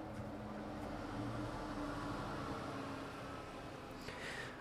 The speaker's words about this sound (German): Bus